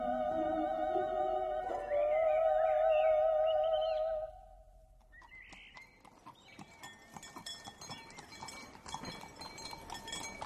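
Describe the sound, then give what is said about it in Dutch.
Heavy draft horses, about 30 farm horses decorated with bells and flowers, clop along a road toward a village, pulling a special wagon carrying a pine tree. Bells jingle and ring steadily as the wagon rolls with them; a bright sustained bell-like tone dominates the first few seconds before the hoofbeats and clinking take over. “De den is op een speciale dennenwagen gehezen en de mannen hebben er maar liefst 30 paarden voor gespannen. Forse boerenpaarden versierd met bellen en bloemen.”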